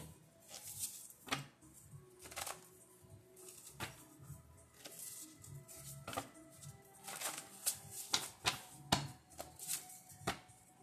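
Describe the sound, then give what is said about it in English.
A deck of cards being shuffled, with repeated crisp riffles and soft slaps in an irregular rhythm for about ten seconds, no one talking. “Let me go ahead and do my shuffle real quick.”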